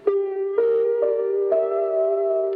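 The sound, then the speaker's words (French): Lo-fi piano recorded on a magnetic card machine normally used to record short phrases or play back a teacher's phrases: muffled, steady sustained tones, with a new note or chord struck roughly every half second, four changes in all. Moderately loud, no voices. “Normalement, tu passes la carte dans la machine pour enregistrer de courtes phrases ou écouter celles du professeur.”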